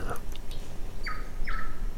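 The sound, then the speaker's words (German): A tui, a New Zealand endemic bird, gives a few short, clear whistled notes, two of them close together near the end, over a steady low rumble of background noise. “endemischen Vögel Neuseelands, die tatsächlich auch auf beiden Inseln verbreitet sind, nicht ausgestorben sind, nicht von Katzen gefressen wurden, kann ganz gut fliegen, obwohl er immer eher gerne rumhüpft und da, wo Beeren sind und Blüten”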